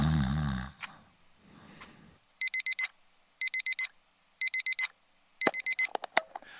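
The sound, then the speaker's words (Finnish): On an early Monday morning, an alarm clock on a bedside table beeps in four bursts of rapid, high electronic pulses, preceded by a loud snore from a sleeping father and breathy rustling, ending with sharp clattering knocks as it's silenced. “Yöpöydällä oleva herätyskello alkaa soida viiden sekunnin kuluttua.”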